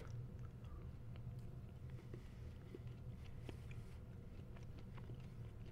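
Soft chewing of a piece of chocolate, with faint irregular crunches and mouth clicks over a steady low background hum, no talking.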